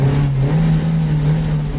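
A car engine drones loudly, its low steady pitch edging slightly upward as if the vehicle is accelerating, with no voices over it.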